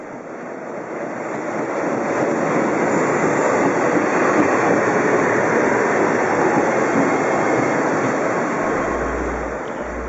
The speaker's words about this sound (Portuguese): oito trens passaram.